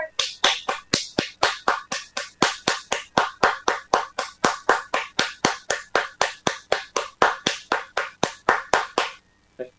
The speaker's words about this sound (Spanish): ¡Aplausos, por favor!